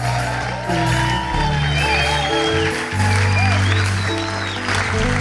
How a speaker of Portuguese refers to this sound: Será que vocês podem dar, à boa maneira portuguesa, um grande bem-vindo com uma gigante salva de palmas